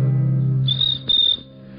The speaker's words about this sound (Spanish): El grillo cantó.